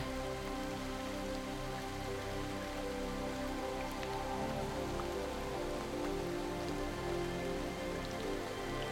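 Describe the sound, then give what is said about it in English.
Steady rain patters onto a hard surface, a dense, even wash of droplets with occasional louder drips, continuous, with no voices. “Sinking deeper into acceptance as you open yourself to accept and receive this beautiful cooling rain.”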